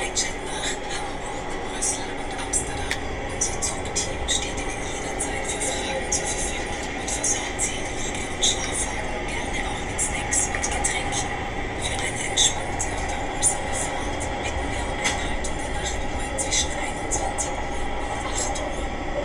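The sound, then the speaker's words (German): A muffled public address announcement about quiet hours from 9 pm to 6 am plays aboard a moving train, the voice half-buried under a steady rumble of wheels and carriage noise with frequent small clicks and rattles. “Jetzt oh, kommt die Durchsage. Jetzt habe ich eine Durchsage.”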